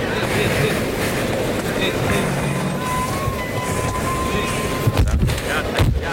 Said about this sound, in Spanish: Llevan al toro hasta el burladero del 7 de sol. Ahí le oímos llegar. La respiración del toro.